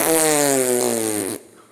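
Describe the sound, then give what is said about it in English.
A loud, drawn-out fart with a buzzy, tonal quality, sliding slightly downward in pitch for over a second before cutting off abruptly, with no talking. “Jesus Christ, Anakin, you still haven't lost the ability to fart and stink like high hell.”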